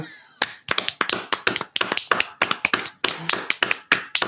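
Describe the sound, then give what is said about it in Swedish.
A brief burst of clapping from a couple of people, the hosts giving themselves a spontaneous round of applause: quick sharp hand claps tumbling over one another in an uneven rhythm for about four seconds, with no talking. “Så först innan vi fortsätter det här avsnittet så vill jag att vi ger oss själva en spontan applåd.”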